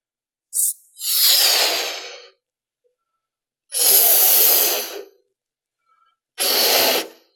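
Someone blows up a balloon with three long, forceful breathy puffs separated by short pauses, each a loud airy hiss, with a tiny click just before the first; no one speaks.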